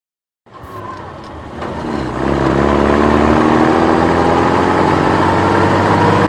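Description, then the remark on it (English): A heavy military troop truck engine starts up and settles into a loud, steady rumbling idle, deep low-end drone continuing without pause, with no voices. The truck carries troops 27 miles outside London, England, in May 1944, bound for Piccadilly Circus. “Jack was sitting in the back of a troop truck bound for Piccadilly Circus.”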